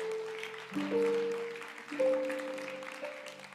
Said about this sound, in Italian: Forte questo applauso per il Signore.